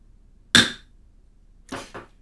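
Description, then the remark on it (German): A gavel bangs once, sharp and loud with a short ringing decay, then after a pause strikes twice more in quick succession, a bit softer, struck by a meeting chair to open an agenda item. No voices are heard. “Ähm, ich schlage den Hammer und äh, mhm.”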